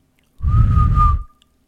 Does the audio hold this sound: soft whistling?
yes